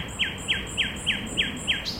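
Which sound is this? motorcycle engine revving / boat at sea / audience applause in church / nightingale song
nightingale song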